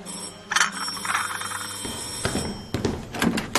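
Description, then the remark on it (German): A doorbell rings with two bright, bell-like chimes, then gives way to a series of sharp clunks and rattles, as if a door is being unlocked and opened. No one speaks. “Der Nachrichtenton ihres Handys gehörte dazu. Oder auch die Türklingel.”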